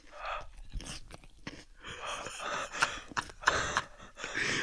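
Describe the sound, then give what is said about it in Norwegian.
Wet chewing and smacking noises repeat unevenly, punctuated by sharp breaths or gasps; no one speaks as someone munches loudly on food. “Hør nå når han tygger.”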